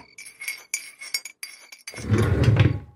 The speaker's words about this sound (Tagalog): Pasensya na sa interruption mga kakwentong takip silip. Nasagi kasi ng multo yung rebulto dito sa bahay.